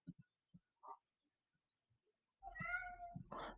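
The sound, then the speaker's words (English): A pet cat meows: a few short, soft chirps first, then after a pause a longer, louder drawn-out meow with rising harmonics, ending in another quick cry. “Sorry, my kitty cat was calling me.”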